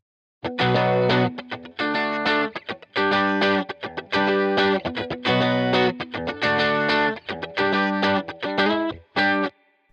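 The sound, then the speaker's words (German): An electric guitar strums a song's chorus chord progression as barré chords with a driven, effected tone, playing loud rhythmic chord bursts with brief gaps throughout, no voices present. “Danach sind wir auch schon beim Chorus, das dann in etwa so klingt.”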